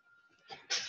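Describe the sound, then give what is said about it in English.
A single sharp sneeze bursts out, preceded by a short, breathy intake, with a faint steady tone lingering in the background. “It's oh bless you, bless you.”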